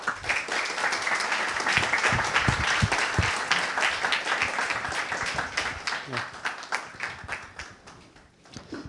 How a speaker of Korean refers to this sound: 좋은 강연을 부탁드리면서 선생님께 큰 박수를 부탁드립니다.